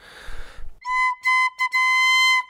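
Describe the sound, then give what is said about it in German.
A single organ pipe, held in hand and tested for how quickly it speaks, sounds a steady, clear tone in several sustained bursts with brief gaps, preceded by a short rustle of handling noise; fairly loud, no talking. The pipe speaks slightly too slowly. “Diese Pfeife zum Beispiel hier ist einen ganz kleinen Tick zu langsam.”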